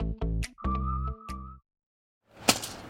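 rake whacking the ground

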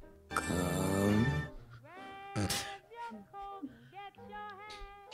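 cat meowing

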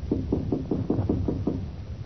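knock on a door

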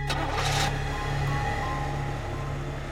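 car engine running

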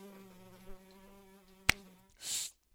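fly buzzing around

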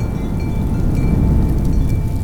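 strong gust of wind

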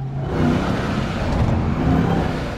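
pickup truck engine revving

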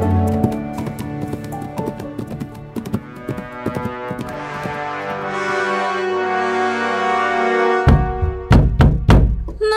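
knocking on a door

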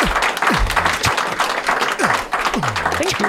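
applause

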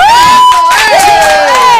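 crowd cheering and applause

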